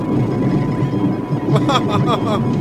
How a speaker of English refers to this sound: Oh, here comes some thunder.